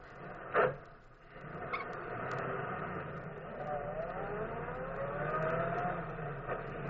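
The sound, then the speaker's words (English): A car engine catches with a sharp burst, then settles into a steady running drone whose pitch climbs gradually as the engine revs. “Now I'll start the car.”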